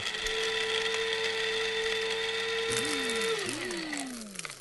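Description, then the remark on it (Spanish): A food processor whirs loudly as it chops 400 grams of almonds or pistachios, a steady droning motor with gritty rattling; the pitch sags and recovers twice as pulses hit, then winds down near the end. “Para esto tomamos los 400 gramos de almendras o de pistachos o lo que sea y los trituramos con un procesador de comida.”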